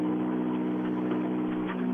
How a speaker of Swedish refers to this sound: Och det är ju... Bilen låter ju brutal. Det är knappt som man hör sig själv när man intervjuar dig här. Nej, den, bilen går jättebra.